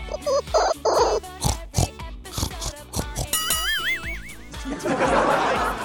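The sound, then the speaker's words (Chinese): A piglet on a pig farm oinks and squeals in a busy, rapid jumble: short grunts, a high wavering squeal midway, and a harsh, noisy squeal to finish, fairly loud throughout. “呃，各位观众，由于小猪说的话路子太野哈，完全不按常理出牌，本期节目就到这里”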